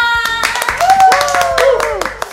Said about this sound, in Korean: 어, 오늘 뭔가 박수 소리에서 되게 멋진 박수 소리 들리는 것 같고 상당히 사랑스러운 박수 소리도 들리는 것 같아요.